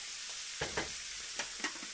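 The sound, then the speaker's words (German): Minced meat sizzles steadily in a frying pan over high heat, a continuous hiss broken by a few short scraping knocks as it is chopped up and stirred with a spatula. “Okay, dann das Hack in die Pfanne. Du hörst schon, wir haben gut Feuer drauf.”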